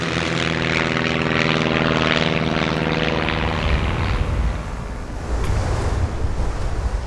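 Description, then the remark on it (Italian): A propeller airplane engine drones loudly with a steady, buzzing hum, then gives way to a broad rushing roar as the tone shifts; the aircraft is carrying Italian mountaineers to the Karakoram in 1954. “Il 20 aprile del 1954 è il giorno della partenza e i grossi scarponi imbottiti di pelo e dalle grosse suole di gomma sono pronti per essere imbarcati sull'aereo che porterà gli alpinisti italiani sul Karakorum.”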